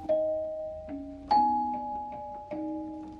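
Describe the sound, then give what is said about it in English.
Bells of Sather Tower, the Campanile clock tower at UC Berkeley, completed in 1914, ring out in a slow melodic sequence, each strike sustaining and overlapping the next, with a resonant, ringing tone and no voices. “At the end of our last story, we heard the bells of UC Berkeley's Campanile Tower.”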